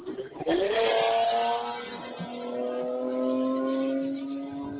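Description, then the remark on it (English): A motorcycle engine revs up sharply, its pitch climbing fast and then holding a steady, buzzing drone for several seconds, loud. “It must be Bob on his motorcycle.”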